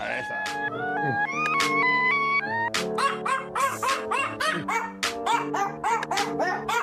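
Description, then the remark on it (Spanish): A New Guinea singing dog's high, wavering song-like howls rise and fall in pitch, breaking into a rapid series of yipping, warbling calls, loud with no talking. “¿A que no sabías que existían los perros cantores de Nueva Guinea?”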